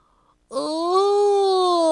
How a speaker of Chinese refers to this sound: 第二天早上，他醒来之后打了个哈欠，